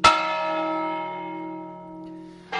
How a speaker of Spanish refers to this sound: Las campanadas que oímos pertenecen a la iglesia parroquial de San Xiao de Bastavales, finalizada en 1772. La torre campanario con aires barrocos fue levantada en 1827